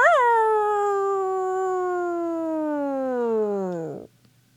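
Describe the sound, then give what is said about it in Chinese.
A hungry wolf howls once in a long, loud, sustained cry that rises briefly, then glides slowly downward for about four seconds before dropping away and falling silent. No one talks over it. “有一天，一只狼坐在驴小弟变成的那块岩石上，饥饿的一遍又一遍的嗷叫着。嗷！”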